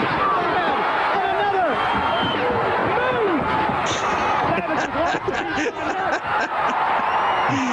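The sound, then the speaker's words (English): Several sharp steel chair shots hit wrestlers in quick, uneven succession over a loud, roaring crowd that yells and cheers throughout. “he nailed everyone with a steel chair.”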